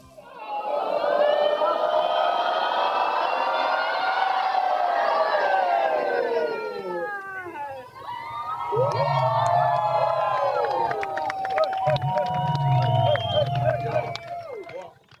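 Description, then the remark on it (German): A large crowd cheers and whoops loudly as a stadium wave, the roar swelling and sliding in pitch, dipping briefly around halfway, then surging again with scattered shouts. “Nach dieser grossartigen Menschenwelle hat sich Muschel Maruschel geöffnet und ihre Perlen gezeigt.”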